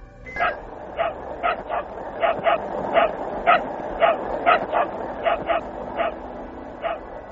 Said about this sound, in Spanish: Es Laika ladrando desde algún lugar dentro del Sputnik 2.